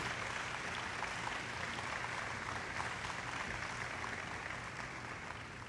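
A crowd claps steadily and loudly for several seconds in applause for the Lord, a dense, continuous wash of hand claps with no voices standing out, tapering only slightly at the end.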